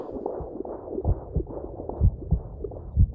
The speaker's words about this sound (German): Hörst du das? Den Herzschlag?